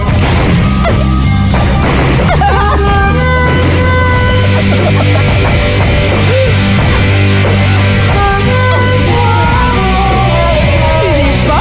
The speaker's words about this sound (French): Ça, c'est des chats qui miaulent.